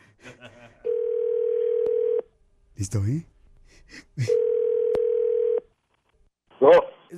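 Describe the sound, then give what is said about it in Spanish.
A steady, low telephone tone sounds twice, each lasting over a second with a gap between, as a show's host redials a caller who hung up. Brief bits of speech in Spanish come before, between and after the tones. “Vamos a volverla a marcar.”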